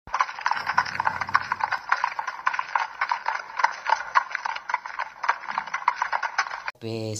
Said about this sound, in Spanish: Además de las voces se reproducían en los radioteatros, se escuchaban efectos de sonido como galop.